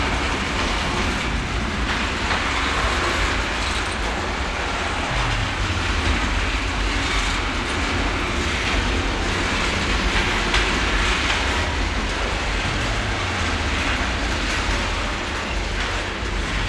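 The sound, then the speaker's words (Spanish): A magnetic train roars past through an underground tunnel, a loud, steady rumble of wheels and rushing air with a faint clickety-clack throughout. A low drone dips twice along the way. No voices. “Básicamente son grandes ciudades subterráneas interconectadas por túneles en los que transitan trenes magnéticos que se desplazan a casi 2.500 kilómetros por hora.”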